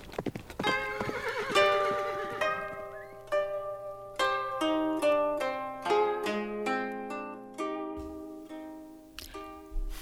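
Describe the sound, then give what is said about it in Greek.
A horse whinnies loudly near the start, followed by a steady run of hooves clip-clopping at an even pace for several seconds as riders ride their horses back to a town, clear, with no voices. “Καβάλισαν τα άλογά τους και επέστρεψαν χαρούμενοι στην πόλη Χουανξή.”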